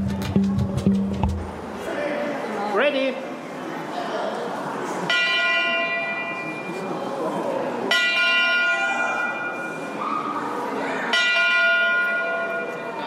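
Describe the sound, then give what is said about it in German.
The large historic bell of steam locomotive No. 374 rings loudly and steadily, each clang ringing out with long metallic overtones, about every three seconds, amid faint background chatter and an early low thump. “Eine historische Glocke, die der Dampflok Nummer 374 gehört, einer Maschine, die für Kanada Geschichte schrieb.”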